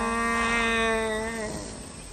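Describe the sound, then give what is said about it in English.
A human voice imitates a dying deer for a film: one drawn-out, nasal bleating cry held for over a second, then sagging and breaking off as it fades, with no talking. “I do the sound of the dying deer.”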